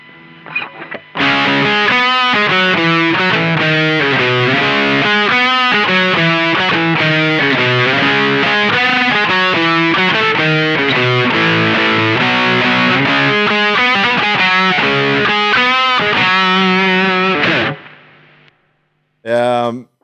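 A loud, down-tuned heavy rock passage driven by thick distorted guitar tuned down three half steps to C sharp, playing a steady riff for about sixteen seconds before cutting off, followed by a brief burst of sound.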